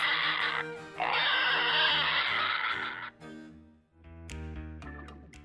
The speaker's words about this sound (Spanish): berraco, cerdo macho, un animal muy rebelde y que emite berridos cuando lo hacen rabiar. Y berraco, un cerdo macho reproductor,